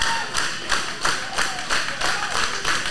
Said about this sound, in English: Saban soaked up all those audience claps.